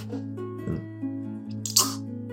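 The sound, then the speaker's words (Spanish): A single loud slurping sip of mezcal near the end, a quick airy suck of liquid over a steady low background hum, with no talking. “Es un sorbito. Sí, es como un. Un besito.”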